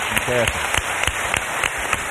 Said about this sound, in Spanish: Te están aplaudiendo mucho. Yo no sé si esta gente lo que quiere es una entrada gratis, ¿eh? cuidado, cuidado que no regalan un aplauso estos, ¿eh?